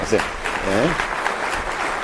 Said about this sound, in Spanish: Entonces, un aplauso de las damas, por favor, ¿sí?